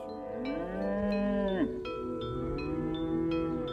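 Cows low in long, drawn-out moos, several voices overlapping with rising and falling pitch, over a steady rural background with faint clicks.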